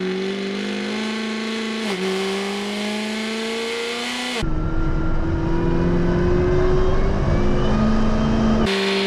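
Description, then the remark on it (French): The 1000tipla, a 1300-horsepower car, accelerating hard on only about 20 to 25 percent throttle, its engine note climbing steadily in pitch, then a sharp gear change into a louder, rougher roar that climbs again before another shift at the end. No voices. “Le 1000tipla ROULE enfin.”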